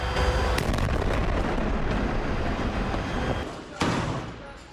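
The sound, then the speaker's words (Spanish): Powerful explosions from a bombardment in the Gaza Strip, in clashes between the Israeli army and Hamas around Al-Shifa hospital: a sharp blast near the start and another toward the end, set against continuous heavy, roaring rumble that stays loud throughout. “Ráfagas de potentes explosiones resonaron en los enfrentamientos entre el ejército de Israel y los terroristas de Hamas.”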